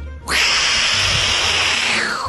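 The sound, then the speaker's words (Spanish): A person imitates a lizard with one long, loud, breathy hiss lasting about two seconds, steady throughout and fading slightly at the end, with no talking. “Escúcheme, háganle que tener háganle un lagarto al tío.”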